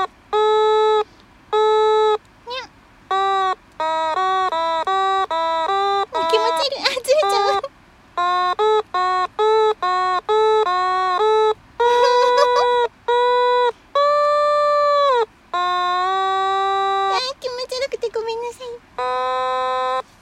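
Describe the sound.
An otamatone, played for only the second time and still just being tried out, whines through a string of short, buzzy, voice-like notes, stopping and restarting as the pitch slides up and down, hunting for the right tones with occasional wobbly bends.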